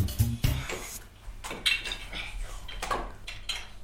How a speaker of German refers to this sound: Ja, also wenn Kinder im Hintergrund Lego spielen, dann hört sich das halt so an.